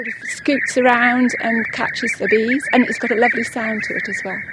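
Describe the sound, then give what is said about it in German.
Someone vocally imitates a bee-eater's call, producing a run of rolling, burbling trilled notes in quick repeated phrases, fairly loud, with no other sounds around it. “Und er klingt auch schön.”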